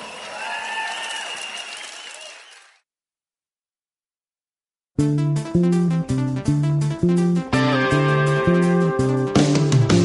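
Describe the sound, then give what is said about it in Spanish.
Audience applause, a dense burst of clapping with some cheering, fades out over about three seconds. After a short silence, loud rhythmic music with steady pulsing chords begins. “Dense un aplauso.”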